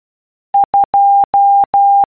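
Morse code beeps: a single steady mid-high tone keyed as two short pips followed by three long dashes, loud and clean with no voices.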